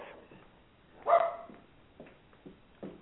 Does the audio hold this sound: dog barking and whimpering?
yes